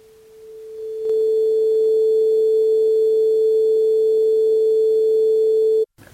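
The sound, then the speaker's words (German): A steady, clean synthesized tone at reduced amplitude, not overdriven, holds one mid-range pitch, stepping up slightly in level after a second, then sustains evenly without distortion for about five seconds before cutting off abruptly. “Ja, du, du hast jetzt, nur schon viel besser, der Klang nicht übersteuert. Ja, du hast jetzt nur die Amplitude verändert, oder?”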